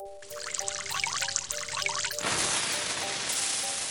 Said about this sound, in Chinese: 啊，这孩子怎么在这里尿尿啊？太不礼貌了！